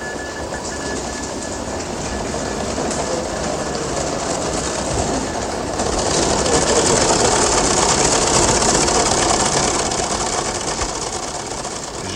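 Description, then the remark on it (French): A news agency teleprinter, both receiver and transmitter, at the Agence France-Presse in Paris, clatters steadily with a microphone brought close to it, a dense, rapid mechanical chatter that runs without pause and grows a little louder halfway through. No voices are heard. “approcher mon micro d'un téléscripteur, je pense que vous avez entendu assez nettement le bruit qu'il faisait.”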